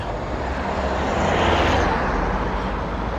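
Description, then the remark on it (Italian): A steady, loud roar of heavy street traffic at a street about to be crossed on foot, swelling in the middle as a vehicle passes, then easing slightly. No one speaks. “Adesso appena attraverso qua, se il notevole traffico ce lo permette, chissà.”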